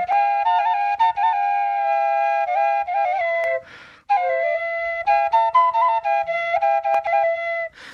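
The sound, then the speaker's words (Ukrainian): A dvodentsivka, a double folk flute, plays a bright, lilting melody in parallel thirds, two breathy high lines moving together with quick ornamented steps, loud, with a brief pause midway. “І є ще дводенцівка. Це дві е, підряд, що можна було грати терцями.”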